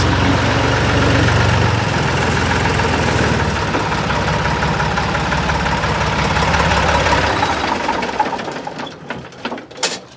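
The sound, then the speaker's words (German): An old tractor engine, after standing unused for two months, chugs steadily and loudly, its low rumbling knock continuing for several seconds before fading as it drives out of the barn without problems, leaving faint birdsong behind. “und zwei Monate Standzeit machen ihm nichts aus. Er fährt ohne Probleme aus der Scheune raus.”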